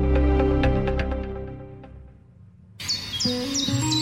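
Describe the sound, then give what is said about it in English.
Bright, high bird chirps and twittering songs start up suddenly after a fading, resonant tone, repeating in quick short phrases with a lower warbling line beneath, fairly loud. “The sun's shining, birds are singing, and all feels right in the world.”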